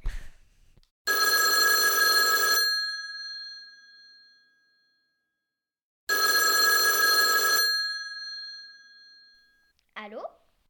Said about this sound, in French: Oh, on dirait qu'il y a le téléphone qui sonne.